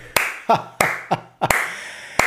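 A single person claps slowly and deliberately, four sharp hand claps spaced evenly apart, with softer, duller knocks falling between them and no voices.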